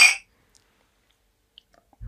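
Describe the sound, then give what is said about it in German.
A short, bright clink of glasses of Berliner Luft in a toast at the very start, ringing briefly before fading into near silence, with only a few tiny ticks after and a low thump at the end. “Nicht nur das, sondern wir haben auch wieder unseren guten Freund Berliner Luft am Start. Einmal anstoßen, bitte. Kling Klong, Ladies.”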